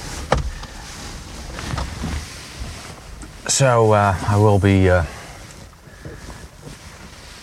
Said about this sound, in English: So, back in the car again, and it started raining again.